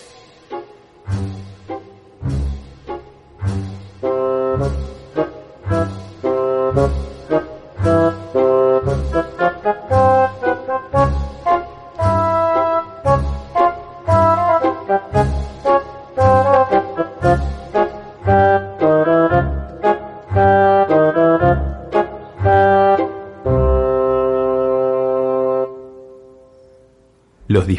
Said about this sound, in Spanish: el tema de los cazadores es interpretado por las maderas, que son instrumentos de viento.